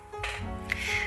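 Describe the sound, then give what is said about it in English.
A chair creaks in a drawn-out, strained groan with a squeaky high whine, moderately loud, lasting about a second with no voices, during a radio show. “That was the chair.”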